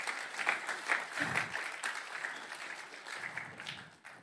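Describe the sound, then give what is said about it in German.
Sparse applause from a small audience for the team who run the Sunday programme, a steady patter of scattered claps at moderate volume that thins out toward the end, with no voices over it. “Aber wir geben ihnen trotzdem Applaus. Komm, Applaus an alle hier.”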